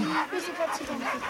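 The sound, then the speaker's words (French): Several sled dogs in a truck bark and whimper excitedly together, a dense overlapping chorus of yips and whines with voices talking underneath, during a canirando (dog hiking) outing with schoolchildren. “Tous les chiens qui sont dans le camion ont l'habitude des enfants.”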